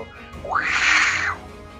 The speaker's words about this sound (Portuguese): uma coisa assim, parece um gato, mas é uma planta.